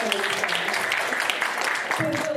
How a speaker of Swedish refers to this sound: kan ni också ge en applåd redan nu.